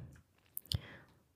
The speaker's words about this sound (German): und ihr hört wahrscheinlich ein Klicken im Hintergrund. Das ist die andere Person in diesem Zimmer. Mein Sklave. ähm, nee, Spaß. Er hilft mir nur, etwas rüber zu kopieren.